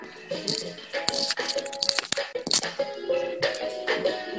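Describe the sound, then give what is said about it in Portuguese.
A song plays with steady sustained tones and a busy, jangly percussive rattle of shaker-like hits running through it at moderate volume, with no voices over it. “Vou botar de novo a trilha sonora aqui, ó.”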